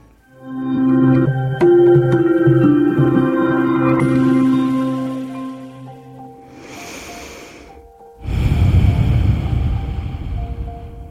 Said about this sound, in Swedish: Ta ett sånt där djupt andetag. Andas in djupt genom näsan. Ut genom näsan. Två gånger till likadant.